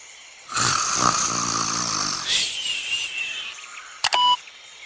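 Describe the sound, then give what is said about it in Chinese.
A cartoonish snoring effect of the sleeping sun: a low, buzzing rumble of an inhale followed by a higher, whistling exhale, then a pair of sharp clicks at the end. No one speaks. “对呀，太阳还在睡觉呢。 它还在打呼呢。”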